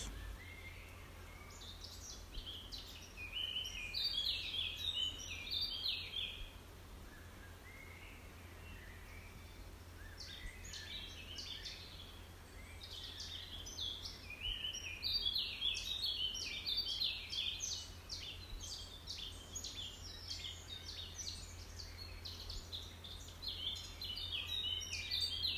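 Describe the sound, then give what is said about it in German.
Forest ambience filled with birdsong: repeated bright, high chirps and trills from several birds come in bursts over a steady low hum, with no voices. “Vielleicht kommen dir auch Bilder von einem bestimmten Wald in den Sinn.”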